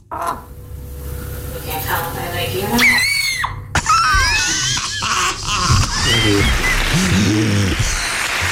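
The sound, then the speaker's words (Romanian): Chickens make a series of short, squeaky sneezes mixed with high chirps and soft clucking, irregular, over a constant low barnyard hum. “Adevărul este că găinile nu numai că tușesc, dar și strănută. Iată dovada.”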